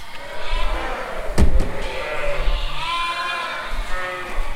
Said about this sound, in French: Au vin lait pour euh, Roquefort Société et on a un troupeau de 650 brebis.